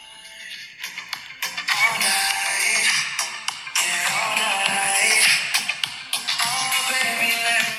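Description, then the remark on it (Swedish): A song plays through a small phone speaker, thin and tinny with almost no bass, its melody and percussion continuing steadily for several seconds with no one talking. “Och då ta, har jag lagt, tagit fram en låt här, nu ska vi se om det, om det, om det hörs bra.”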